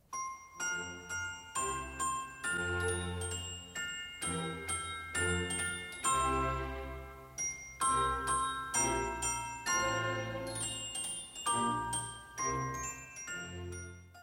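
A glockenspiel plays a lively melody of bright, ringing struck notes in steady rhythm, each chime sustaining and overlapping the next, with no voices present.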